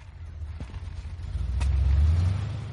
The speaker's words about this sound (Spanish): El coche negro se asoma a la calle. Combo lo ve. Desde el coche, los chicos lo vigilan.